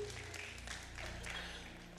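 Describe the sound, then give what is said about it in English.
A crowd applauds, a dense wash of many hands clapping at once with brief sharper bursts, fairly soft and steady for a couple of seconds, with a low hum underneath and no talking. “You ain't got to clap, you don't need it.”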